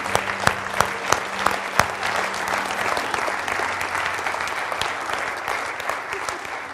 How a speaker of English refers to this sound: To you, we applaud you.